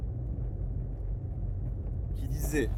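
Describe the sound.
Steady low engine and road rumble from inside a car driving to work on 1 November along a straight, empty road, droning continuously throughout, with a brief brighter rustle or voice-like sound near the end.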